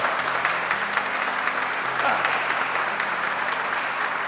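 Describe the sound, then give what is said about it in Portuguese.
An audience applauds Christ at the preacher's call, a dense wash of clapping hands holding at an even level throughout, with a brief voiced exclamation rising out of it midway. “Vamos aplaudir a Cristo, irmão, por esta obra gloriosa.”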